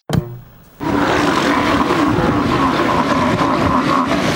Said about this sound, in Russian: Голос моржей слышно за сотни метров. С воздуха гигантское лежбище ластоногих, как одно живое коричневое пятно.